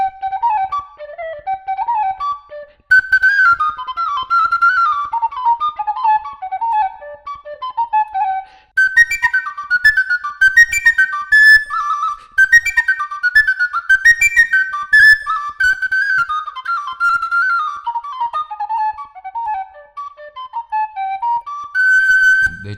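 A fluier folk flute, made in two pieces so it can be tuned and with holes on the back for semitones, plays a lively, ornamented melody on its own, with quick runs of bright, breathy high notes and rapid trills, sustained at a steady loudness for over twenty seconds.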